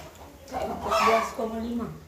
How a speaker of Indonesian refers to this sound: ayam-ayam udah mulai mengganggu di sini juga banyak ayam jadi kita ada di ini sih di daerah Jakal dan Kaliurang Jogja